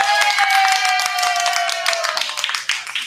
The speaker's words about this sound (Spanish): ¿Qué se merece eso? Un aplauso, ¿no? Un aplauso, señores, pues, bienvenida, bravo.